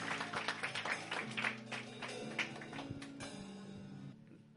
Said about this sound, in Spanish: Dale un aplauso al Señor y puedes tomar tu lugar.